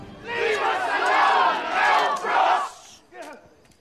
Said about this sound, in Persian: روستاییان محاصره شده به سوی دوربین فریاد میزنند دست از سر ما بردار مل بروکس